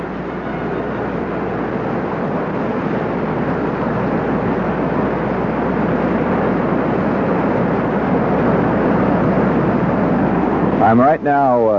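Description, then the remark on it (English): A loud, steady roar of the Mendenhall River's water rushing over rapids, heard from the riverbank, fills the whole recording unbroken, with a voice briefly starting up just at the end. “The sound you hear is the sound of the water rushing by over rapids, and it's one of the wildest, angriest, most dangerous looking rivers I've ever seen anywhere in the world.”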